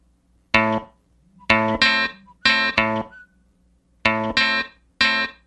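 A Mexican rap song plays, heard here as loud, punchy distorted stabs hitting in short bursts with brief gaps between them, clear, with no rapping voice coming through.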